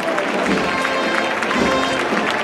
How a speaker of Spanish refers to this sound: Estos son los aplausos, también con recuerdo a Bienvenido Cuelle.